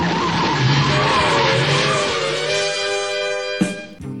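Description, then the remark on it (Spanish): The Batmobile peels out with a loud, sustained tire squeal over a roaring engine, the screech holding steady for several seconds before a sharp burst near the end. “To the Batmobile. Let's go. Atomic batteries to power. Turbines to speed.”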